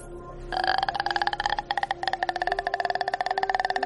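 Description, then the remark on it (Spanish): A voice imitates a low, deep, guttural croaking rattle, a rapid stream of throaty clicks lasting several seconds with a brief break midway. It is fairly loud, with no other talking. “Como el sonido que hace la chica de la película La Maldición”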